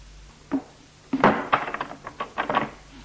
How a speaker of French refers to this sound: Elle ferme la porte.